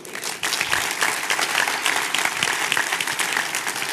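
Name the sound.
audience applauding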